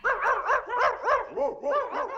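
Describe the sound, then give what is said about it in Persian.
A dog barks repeatedly in quick, yappy bursts, about eight sharp barks in steady rhythm, fairly loud with no other sounds. “حضور حیوانات خانگی مثل سگ و گربه و غیره میتونن حسابی حواس پرت کن باشن”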